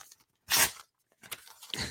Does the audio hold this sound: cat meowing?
no